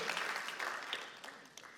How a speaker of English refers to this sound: They do an amazing job every single weekend to serve you. Can we encourage them today? Come on, let's clap it up at all of our campuses. We love our volunteers.